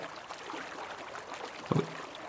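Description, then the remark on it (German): Water runs steadily from a tap that someone has turned on, a soft continuous rushing hiss, with a brief knock or clunk near the end. “Da hat wer das Wasser auftrat.”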